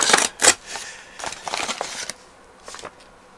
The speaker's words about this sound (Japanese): でたった今たった今ですね Amazon から物が届きましてそれを今開けてみようと思います開封音声開封なんだけど音声だけでお届けしておきますね開けてみるよ